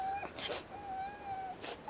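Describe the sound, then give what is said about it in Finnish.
A cat cries with a long, wavering, wailing meow, drawn out and interrupted by a few short breathy sobs; no one speaks. “Voi voi, älä nyt itke Mintun kukkakulta.”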